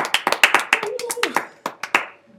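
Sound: audience clapping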